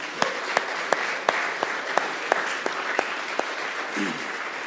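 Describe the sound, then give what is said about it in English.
An audience gives a morning round of applause, steady, a dense wash of clapping with a few sharper claps standing out in a regular rhythm. No one speaks. “Um, these folks do deserve another round of applause this morning.”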